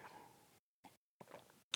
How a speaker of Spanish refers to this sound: Tomo agua.